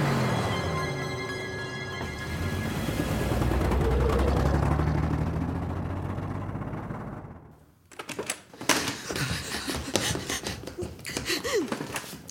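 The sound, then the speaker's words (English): A car engine roars at speed, swelling louder for several seconds before dropping away, followed by a burst of sharp clattering and knocking noises. “she dragged me to the car, and we raced back to the house.”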